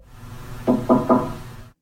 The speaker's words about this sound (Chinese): 刚刚最后那个是敲门声吗？ 嗯嗯嗯，对，没错。